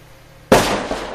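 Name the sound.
firecracker explosion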